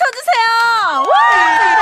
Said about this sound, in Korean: 자어 좋습니다 여러분들 박수를 치려면 더 크게